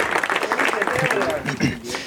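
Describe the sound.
A room full of people claps together in a dense, steady burst of applause that stays loud throughout, with a few voices faintly mixed in.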